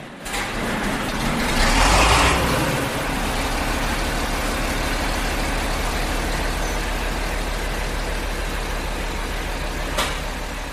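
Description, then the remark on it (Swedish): A John Deere 5020 tractor engine rumbles steadily with a deep, throbbing low idle, swelling louder for a moment early on as it revs and is driven out, then settling into a constant heavy drone. “Här kör Lotta ut sin John D 5020. Onekligen är det ett mäktigt fordon.”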